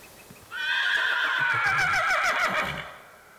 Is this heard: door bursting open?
no